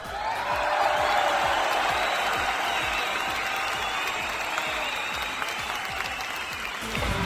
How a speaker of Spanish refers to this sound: Y pues el aplauso del público.